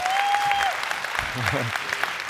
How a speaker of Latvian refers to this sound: Oh, cik šķidri aplausi!